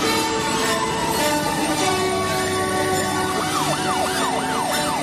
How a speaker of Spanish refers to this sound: No habían empezado a preguntarle cuando sonaron a izquierda y derecha las sirenas del SAMUR y los bomberos como una orquesta que confluía en la glorieta.